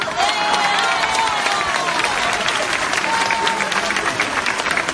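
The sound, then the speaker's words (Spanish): Dense, steady applause from an audience for a performer who has just recited verse fills all five seconds, a loud continuous patter of many hands clapping with faint whistles and crowd noise mixed in. “Ese aplauso, ese aplauso.”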